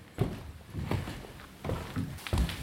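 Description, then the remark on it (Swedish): A person walks across wooden boards: four dull, hollow footfalls at a slow, steady pace, fairly soft, with faint creaks between steps and no talking. “Som ni hör går jag på de här brädorna.”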